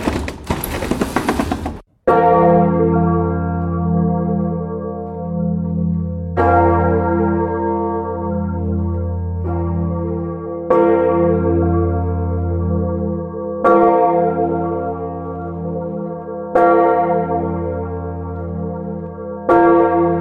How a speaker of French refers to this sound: reconnaître une cloche, mais avant ça craque. Qu'est-ce qui craque C'est le beffroi. Donc ce qu'on a entendu, c'est le beffroi de la cathédrale de, Sens.